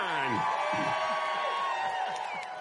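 A loud crowd cheers and whoops together, voting by applause for a contestant in a swimming race, many overlapping voices rising in a sustained roar with possible clapping mixed in, filling the whole moment without a break.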